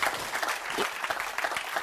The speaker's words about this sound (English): And after John, I'll wait because that's a great book. Clap your hands if you will.